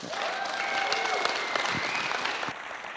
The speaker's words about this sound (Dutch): Een groot applaus voor Daniel.